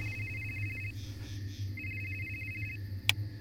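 A man's phone rings with a high, warbling electronic trill in two bursts, over a steady low background hum, followed by a sharp click near the end.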